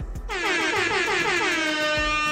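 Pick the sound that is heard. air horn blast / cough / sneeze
air horn blast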